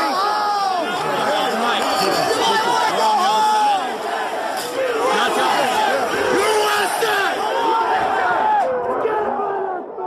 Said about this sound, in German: Wir hören hier, wie Menschen eine Demokratie bedrohen. Es ist The Insurrection, der Aufstand, wie es bis heute in den USA ganz einfach heißt. Diese Töne stammen vom 6. Januar 2021 aus Washington, D.C., vom Sturm auf das Kapitol